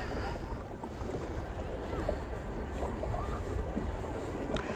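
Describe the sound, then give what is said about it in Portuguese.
Small waves lap steadily against a pedal boat's hull as someone pedals toward shallow water, a continuous wash of water with light splashes, under a constant rumble of wind buffeting the microphone. “Tá ouvindo o barulho? Da, das ondinhas?”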